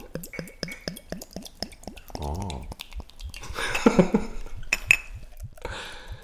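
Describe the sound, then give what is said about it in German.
Beer glugs from a bottle into a glass, the gurgling giving way to a frothy, hissing pour, with a couple of light glass clinks and a brief exclamation. “Gieß jetzt mal vor dem Mikro an.”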